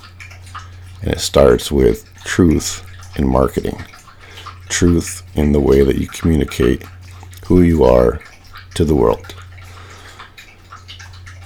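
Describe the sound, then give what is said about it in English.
A female dog laps water from a bowl in the background in Santa Cruz, a soft, wet, rhythmic sound beneath a person talking steadily over a low constant hum. “That's my dog drinking water in the background, and I'm going to get her some fresh air.”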